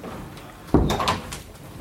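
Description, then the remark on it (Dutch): A single solid thud of a kitchen door swinging shut, followed by a brief rattling settle, with a quiet hum before and after. “de deur van de keuken dicht.”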